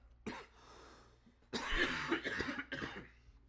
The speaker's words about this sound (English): I have to cough so bad. Me too. Just get out the coughs. Get out the coughs.